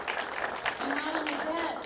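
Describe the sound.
An audience at the kickoff of season nine of Airtime applauds the sixth year of partnership with Alamo Drafthouse, a dense wash of many hands clapping at an even loudness throughout, with a voice faintly audible beneath the clapping.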